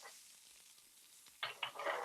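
butter sizzling

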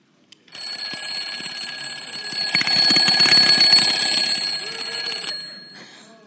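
alarm clock ringing

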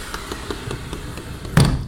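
japanese-style sliding door opening

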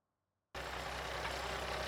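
truck engine running

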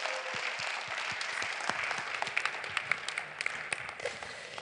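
welcoming applause

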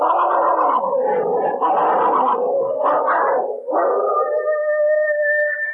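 dogs fighting

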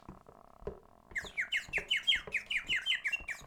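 bird chirping

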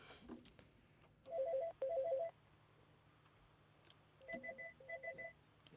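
telephone ringing

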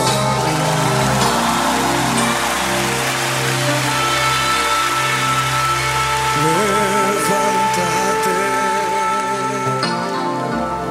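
applause

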